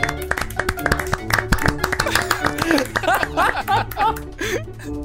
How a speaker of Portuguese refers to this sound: Sensacional! Palmas, senhoras e senhores. Palmas, palmas, palmas. Palmas.